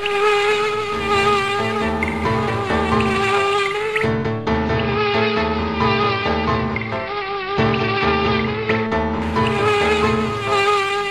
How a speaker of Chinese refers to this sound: 一会儿功夫，就飞来了许许多多的蜜蜂，把蜂蜜全都扔到了水缸里。